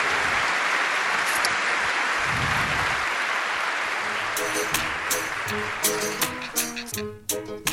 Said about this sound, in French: Merci, en tout cas, grand merci à vous. Je crois qu'on peut vous applaudir encore.